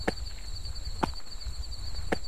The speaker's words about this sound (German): Aber Mammutbäume sind nicht hohl. Durch einen Luftpuffer zwischen Stamm und Rinde entsteht beim Anklopfen dieser eigentümlich hohle Klang.